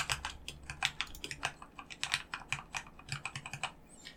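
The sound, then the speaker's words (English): Steady typing on a computer keyboard that is not resting on a desk and is made to be a little quieter, a quick run of soft clicks in an uneven rhythm with brief pauses, fairly quiet and with no voices. “Actually, let me t- let me click in this box here so I know I'm typing.”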